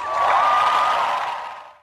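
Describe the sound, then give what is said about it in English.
A large crowd at the Dartmouth class of 2011 commencement bursts into dense, steady applause with some cheering, loud and sustained for a moment before quickly fading away. “Conan Doctrine, all commencement speakers who shamelessly pander with cheap inside references designed to get childish applause, will be forced to apologize to the greatest graduating class in the history of the world, Dartmouth class of 2011 rolls.”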